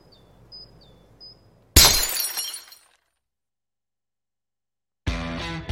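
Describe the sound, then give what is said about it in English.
A glass bottle shatters in one sudden, loud crash, its jangling shards ringing out for about a second after a quiet stretch with faint high chirps. Silence follows before another bright burst. “You're telling me that bottle is cut in half? You could say that.”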